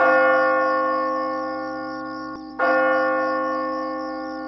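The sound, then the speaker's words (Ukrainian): A gong struck with full force fills a house with a long, shimmering metallic resonance, then is struck hard again midway, the fresh hit blooming into another sustained, slowly fading hum. No voices. “Приблизно десь цієї миті звук гонга вдареного щосили виповнив будинок.”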